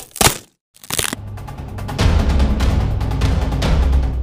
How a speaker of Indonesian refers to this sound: Namun, tiba-tiba krak krak krak boom boom ada suara keras oh lala saat kelinci melintasi jembatan tiba-tiba jembatan itu patah